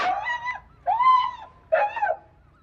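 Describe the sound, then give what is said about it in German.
A dog whimpers three times in close succession, each a drawn-out, high, nasal whine that rises and falls. The whines are fairly clear, with no talking. “Warschau, hier kommt der Hund.”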